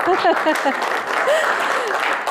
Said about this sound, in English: That deserves a round of applause.